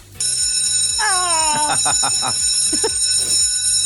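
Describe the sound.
A shrill school bell rings continuously and loudly on the first day of a new school year, a steady metallic clamor, while people talk over it.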